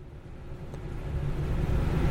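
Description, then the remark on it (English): A steady low engine rumble from a truck in a played video, rising slightly in loudness as it continues, with no voices over it. “Cold Steel says that's some U.S. officer's truck.”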